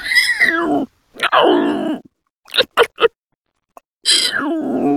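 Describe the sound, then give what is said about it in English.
A voice imitates a small to medium pig-like dinosaur monster creature with harmonic squeals and growls, a few short snorting grunts in the middle, then another squeal, loud with no talking. “Um, it is a kind of a small to medium pig dinosaur. Just like a horrible little pig monster creature.”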